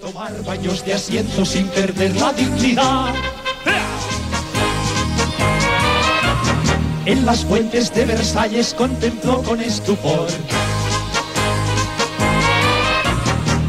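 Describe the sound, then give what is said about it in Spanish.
A full-band song plays loud and steady, a singer's voice carrying the lyrics over a driving bass and rhythm section throughout. “Así que, y ya vamos a, a, ponerle el broche a este programa 200, como no podía ser de otra manera, pues con un temazo musical que suena así.”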